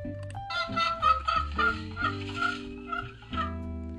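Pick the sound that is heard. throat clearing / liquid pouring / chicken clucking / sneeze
chicken clucking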